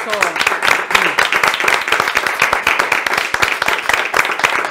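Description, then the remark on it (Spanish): A crowd breaks into steady applause, many hands clapping in a dense, continuous patter that stays loud for several seconds, with a few voices faintly mixed in. “Así es, un aplauso.”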